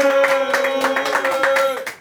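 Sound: studio audience clapping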